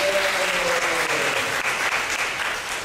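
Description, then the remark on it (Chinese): A church audience claps for God together in a dense, steady wash of applause that holds at an even, loud level for about three seconds, with a faint sustained tone underneath at the start. “拍手要会给上帝。”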